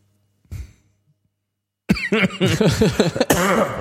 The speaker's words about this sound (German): ich habe Husten.